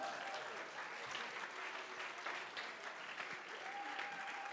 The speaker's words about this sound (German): Unser Gott, ein Applaus hierher, ja.